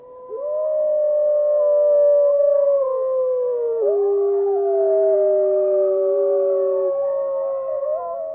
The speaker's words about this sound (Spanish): Bueno, ahora a qué aullan los lobos. a la luna.